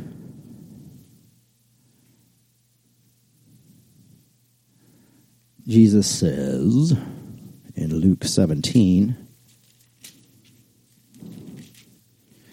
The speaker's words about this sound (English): just love hearing y'all rustle your Bible pages.